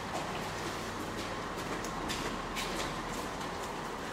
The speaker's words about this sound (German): Ist jetzt auch gerade zwei Züge angekommen.